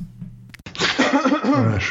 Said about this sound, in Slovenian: Odkašlja si se, zdaj pa papige.